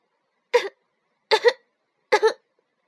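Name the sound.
heavy coughing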